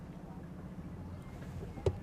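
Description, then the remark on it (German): A small boat moves across the water with a steady, low engine drone and a wash of noise, broken by one short knock near the end. “Hat dir gefallen auf unserem Boot?”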